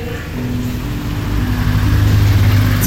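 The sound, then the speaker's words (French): Heavy 33-tonne military trucks rumble past in a convoy, their deep diesel engines droning loud, the low growl swelling steadily over a few seconds with no voices. “Les 33 tonnes en queue de convoi. On dirait des camions militaires.”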